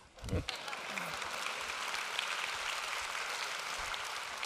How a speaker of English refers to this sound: Oh, y'all need to be clapping right now.